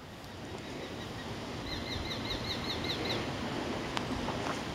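A rapid series of about eight sharp, repeated calls from a Eurasian sparrowhawk, a small bird of prey, rings out over a steady rushing outdoor background, lasting around a second and a half.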